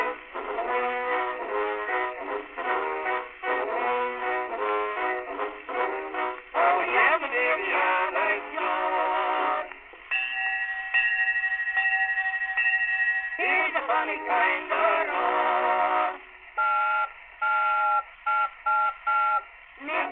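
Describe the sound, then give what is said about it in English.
An old, distorted phonograph music recording played at half volume, thin and tinny with no deep bass, carrying a continuous melodic line with a sustained held tone partway through and choppy, broken-off notes near the end. “that was being played in those very homes so i'll put this on now and hopefully the sound won't be so distorted right just half volume”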